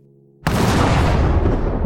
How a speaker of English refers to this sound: like lightning and thunder and the sound of ripping through the very fabric of reality, this high pitched winding noise.